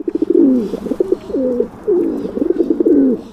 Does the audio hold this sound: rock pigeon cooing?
yes